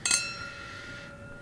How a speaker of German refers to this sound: Stoßen wir an. Prost. Salute. Salute.